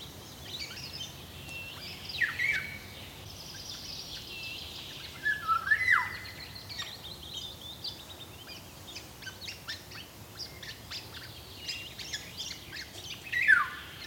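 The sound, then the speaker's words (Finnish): A Eurasian golden oriole calls with harsh, downward-sweeping cries at intervals, mixed with softer chattering bird notes over a quiet outdoor background with no voices. “lapsuuden kesiin Saimaalla Taipalsaarella kuului kuhankeittäjän huutelu”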